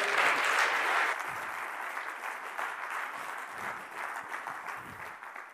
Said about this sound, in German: Geben wir doch dem Redner nochmal einen grossen Applaus. Danke.